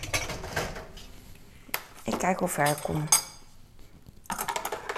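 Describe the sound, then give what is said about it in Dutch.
Dishes and a dirty pan clink and clatter in bursts of washing-up, pausing while a woman speaks briefly, then the metallic clattering resumes. “Maar aan de andere kant irriteert het me heel erg dat die pan zo smerig is en dat het hier staat. Dus wil ik hem eigenlijk wel wassen.”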